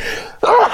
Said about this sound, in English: Um, hang on, I got to sneeze.